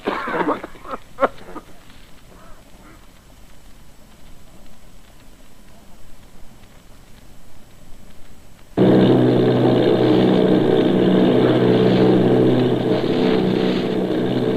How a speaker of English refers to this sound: Army bombing plane V 843 off Bayonne, New Jersey. Lieutenant Voght commanding eight bombers, reporting to Commander Fairfax, Langham Field.